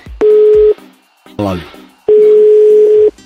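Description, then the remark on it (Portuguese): A telephone busy signal sounds as two loud, steady electronic tones, a short one and then a longer one, with a brief burst of voice in the gap between them. “É que tá dando sinal de ocupado só.”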